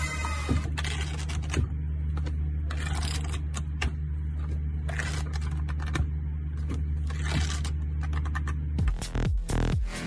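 Books being shifted and arranged: irregular scraping swishes and soft knocks come in bursts over a steady low mechanical hum, with a louder shuffle at the very end. No one speaks.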